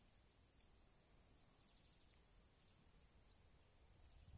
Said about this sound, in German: Hörst du den Wind? Durch die Blätterstreifen? Hörst du die Grillen und die Vöglein?